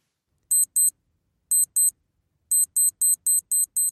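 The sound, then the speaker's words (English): A NAF 1980s digital watch alarm beeps in short high-pitched pairs, two double beeps separated by pauses, then a faster run of six evenly spaced beeps. The beeps are loud and sharp, with no voices. “In fact, one of my most treasured possessions of his is a NAF 1980s digital watch that still offers me a physical and emotional connection back to him.”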